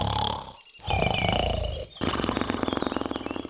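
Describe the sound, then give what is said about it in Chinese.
Loud, rumbling snores in three long bursts, the last one turning into a fast, rattling buzz. The growling roar is two giants, a green giant and a red giant, who have lain back down and are sleeping heavily. “嘿嘿，两个巨人又躺下去继续睡觉，没多久又开始打呼了。”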